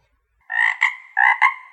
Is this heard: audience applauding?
no